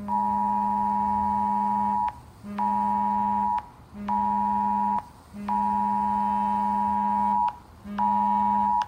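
Loud, harsh Amber Alert emergency tones, sent out Friday night at 11 p.m. for three missing Skelton boys of Morenci in Lenawee County, sound in a repeating pattern of about six long blasts with brief gaps, a steady buzzy mid-pitched tone with strong harmonics and no voices.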